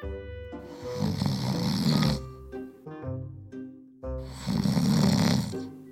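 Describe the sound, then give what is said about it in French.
Two loud, drawn-out snores, each a harsh rasping rattle followed by a tonal, rumbling breath, repeating in a slow rhythm with no talking. “Lorsque le loup eut apaisé sa faim, il se recoucha, s'endormit et commença à ronfler bruyamment.”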